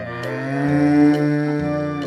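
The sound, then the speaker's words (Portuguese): A cow lets out one long, drawn-out moo, loud, holding steady for about two seconds with a slight rise in the middle. No one speaks. “Outra hipótese que lhe convém é ir para a Índia, sua verdadeira terra natal, pois lá não é uma vaca à esquerda, mas um sagrado animal.”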